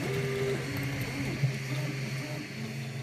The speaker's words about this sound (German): Ausgedacht haben sich das Ganze Forschende von der Columbia University in New York. Sie haben alle Zutaten einzeln in Spritzen eines 3D-Druckers gefüllt und dann in der vorgegebenen Abfolge Schicht für Schicht aufgetragen.